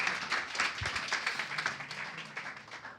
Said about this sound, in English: Awesome. Well, you know, I, uh, yeah, you want to clap your hands? Go ahead